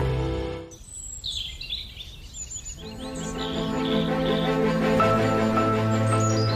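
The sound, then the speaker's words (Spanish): Bright, twittering birdsong chirps in quick bursts, first over a low hum, then continuing as sustained music swells in underneath, the high calls still clear above it. “con pajaritos si es preciso, así notamos mejor el aire a la sombra de estos pinos imaginarios”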